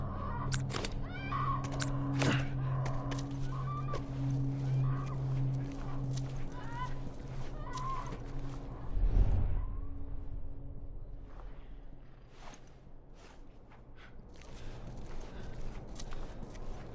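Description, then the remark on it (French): A horse shuffles and clops in uneven, scattered steps over a steady low hum, with one heavier thump partway through and the movement thinning out toward the end. “Reste avec le cheval.”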